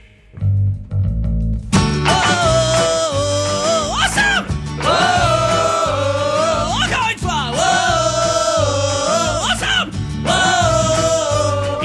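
A loud, upbeat French sung news-report parody, about a man arrested by police in a field in Briançon, starts after a brief low intro, with a voice singing melodic lines over a steady driving beat and full band accompaniment throughout.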